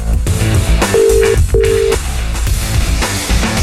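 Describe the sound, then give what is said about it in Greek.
A telephone rings in two short, even electronic pulses close together, cutting clearly through a busy musical background that keeps playing before and after. “Σήκωσε καλέ το τηλέφωνο.”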